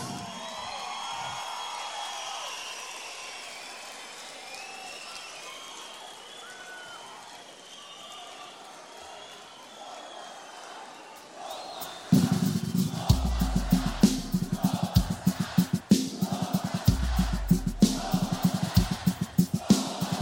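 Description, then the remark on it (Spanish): A crowd murmurs quietly for several seconds, then loud, dense applause breaks out and continues steadily to the end, like a full audience clapping, in applause for guitarist Pilar América. “fuerte aplauso a la guitarra Pilar América.”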